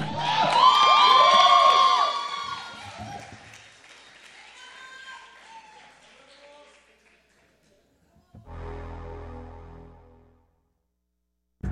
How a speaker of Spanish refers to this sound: Muchas gracias a todos por venir. Al ratito. Fuerte el aplauso, que se siente el amor.